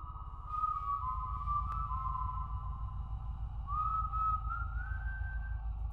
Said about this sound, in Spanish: El silbido comenzó. Podía oírlo claramente desde la habitación de mis padres.